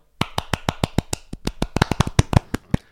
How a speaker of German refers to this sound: Äh, Applaus, einfach äh, Mini-Applaus für euch.